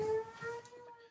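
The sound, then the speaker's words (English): A siren wails steadily in the background, a sustained tonal whine with slight pitch drift, fairly faint, with no one speaking over it. “Sorry about the siren in the uh, in the back.”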